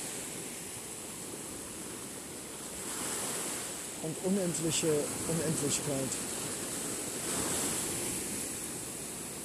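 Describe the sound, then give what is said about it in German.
Ocean waves wash over a person's feet, a steady broad hiss of surf swelling and receding, with a man speaking softly over the water midway through. “umspült meine Füße.”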